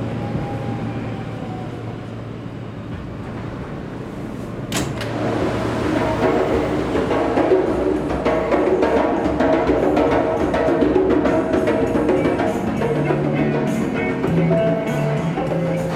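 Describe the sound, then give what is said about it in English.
Loud, continuous subway train noise fills the 14th Street–Union Square station of the New York City subway: a deep rumble with a sharp clank partway through, then grinding, squealing metallic tones as the train moves. “The New York City subway system is huge and full of people. It's also very noisy. And along with the train noise”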